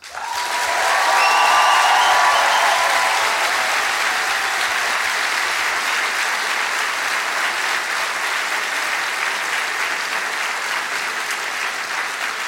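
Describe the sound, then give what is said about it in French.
An audience of more than 1000 people at the Bataclan bursts into sustained applause, a dense, steady wash of clapping that swells quickly and holds for the whole stretch, with a few cheers and whistles rising early on. “Et ça, je pense que ça s'applaudit.”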